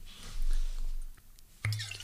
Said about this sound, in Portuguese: Está a abrir uma garrafa com, uh, com os dentes.